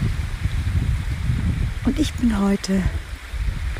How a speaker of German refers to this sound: Ja, ihr hört im Hintergrund einen Bach rauschen.